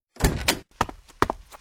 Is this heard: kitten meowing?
no